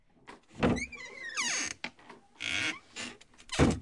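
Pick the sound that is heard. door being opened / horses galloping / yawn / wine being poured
door being opened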